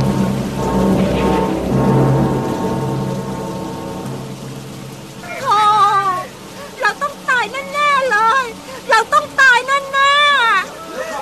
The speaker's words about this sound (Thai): ต้นไม้อาคารหินผาและพื้นโลกต่างถูกพายุโหมพัดกระหน่ำพังพินาศท่ามกลางเสียงวีดวิวของพายุรายนั้น